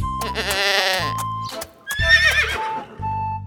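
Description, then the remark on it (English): Loud, wavering goat bleats alternate with a horse-like whinny over several seconds as a goat and a foal are loaded onto a boat, each cry clear, with soft low thuds beneath and no talking. “I load my goat and my foal.”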